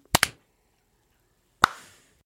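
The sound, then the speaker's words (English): Sharp hand claps with no talking: a quick pair of snaps, a pause of over a second, then one final crisp clap that trails off with a brief ring. “One two three, then clap.”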